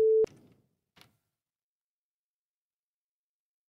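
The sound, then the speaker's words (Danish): A brief, loud, steady telephone ringing tone on an outgoing call placed from a Radio 4 programme cuts off abruptly with a click, followed a moment later by a single faint click and then silence. “Ringer den overhovedet?”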